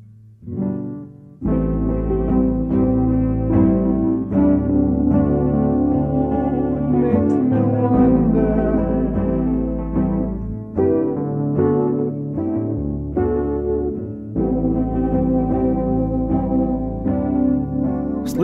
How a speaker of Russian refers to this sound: слышите эту гитарную гармонию? Как звучат аккорды на электрогитаре? Какую атмосферу добавляет реверберация?